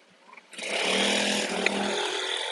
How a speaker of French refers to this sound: Et eh ben voilà, avec ce bruit de voiture, euh, c'est ainsi qu'on peut clôturer cette room.